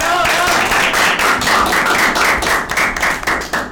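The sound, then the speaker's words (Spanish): A loud burst of applause from a group, many hands clapping densely and continuously, with faint voices mixed underneath. “De un fuerte aplauso, ¿no?”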